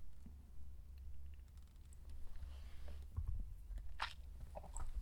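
A quiet pause with a low background hum, broken by a soft slurping sip of coffee and a few faint clicks and handling noises, with no talking.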